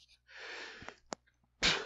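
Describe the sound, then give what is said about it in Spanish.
A long, hissy intake of breath, a brief catch, then one sharp, explosive sneeze. There is no talking, only the breath and the burst. “Salud. salud.”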